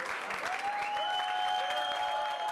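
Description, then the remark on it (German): A large crowd of thousands of Munich residents claps continuously at Munich Hauptbahnhof, welcoming arriving refugees on the weekend after the border opening, a dense, steady patter of many hands, with sustained high whistle-like tones running over the applause. “Ich habe ein Plakat dabei gehabt, statt herzlich willkommen und geklatscht habe ich.”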